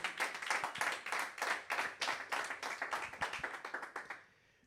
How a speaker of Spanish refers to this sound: ¿Alguien le puede dar un aplauso al Señor? Somebody that has faith.